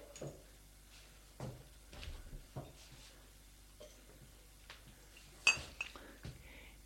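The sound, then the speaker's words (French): In a quiet kitchen, a boy opens a cupboard and takes out a glass: a few soft knocks and bumps, then a brighter clink of glass set down. No one speaks. “Prends un verre.”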